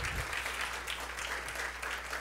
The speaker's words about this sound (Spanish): Un aplauso para ellos. Muy grande, muy bien.